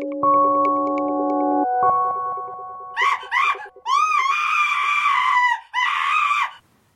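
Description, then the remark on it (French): A steady droning chord plays for a few seconds, then a person abruptly breaks into loud, shrill screaming: two short bursts followed by two long, piercing screams. “C'est inquiétant, non D'entendre quelqu'un crier tout d'un coup.”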